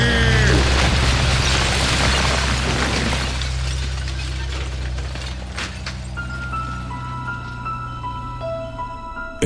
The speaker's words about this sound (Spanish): Uno de los vehículos le pegó de frente al panaderito y este fue botado hasta el interior de su fábrica. El resto de los camiones impactaron en los puntos más fuertes de soporte del lugar para que se viniera abajo.